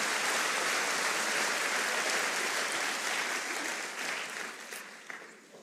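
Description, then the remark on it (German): A crowd claps steadily for a group of guests in dense, sustained applause that holds strong for several seconds, then gradually thins and fades out toward the end. No one speaks over it. “Können wir denen mal gerade einen Applaus geben?”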